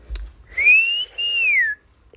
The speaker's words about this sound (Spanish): Escuche nada más. Mi papá siempre silbaba así.